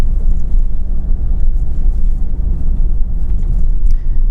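Steady, loud low-pitched road rumble fills a car cabin while driving, a continuous droning hum with no voices and no breaks.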